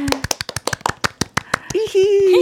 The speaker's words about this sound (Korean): 내가 잘하는 걸 뒤로 하고 또 다른 도전에 대해서 우리 박수 한 번 치자. 네.